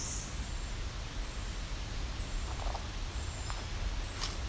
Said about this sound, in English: And that sharp tick call in the background is the hairy woodpecker.